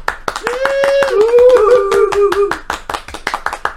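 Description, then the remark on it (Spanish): Brisk, steady hand clapping, about five sharp claps per second, continues throughout. Partway through, a sustained, wavering voiced tone, like a cheer, rises over the clapping for a second or two. “Jornada completa, un aplauso.”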